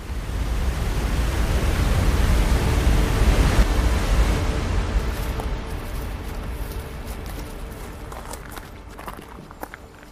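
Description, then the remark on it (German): The Krimml Waterfalls roar, filling the scene with a dense, steady rush that eases slightly over time, while crunching footsteps on gravel from someone hiking the waterfall trail upstream become audible toward the end. “Die Krimmler Wasserfälle und eine Wanderung im Achetal”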